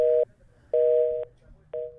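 A telephone busy tone after a dropped call with a caller travelling on the road, whose connection was unstable: a steady, mid-low electronic beep pulsing on and off, three bursts in about two seconds, fairly loud over a faint murmur.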